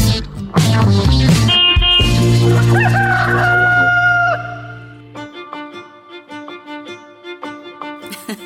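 A loud rooster crows a long cock-a-doodle-doo over the first few seconds, then a rhythmic, bouncy tune carries on at a lower level.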